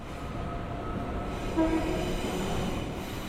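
A train rumbles steadily along the rails with a continuous low, rhythmic clatter, with a brief tonal squeal or horn-like note rising partway through, moderately loud.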